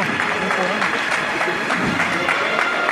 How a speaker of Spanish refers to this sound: Que ahora sí, este aplauso unánime en toda la plaza marca que aquí se acaba su estación de penitencia.